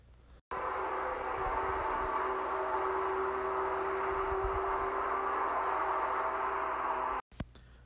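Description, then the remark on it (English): A lawnmower engine runs with a loud, steady droning hum for about seven seconds, starting and stopping abruptly, with no one talking. “So, that was the sound of a lawnmower going, and uh, that sound reminds me of like summer because uh, a lot of the times, like, when I wake up, there's like a lot more going outside, but it only happens during summer.”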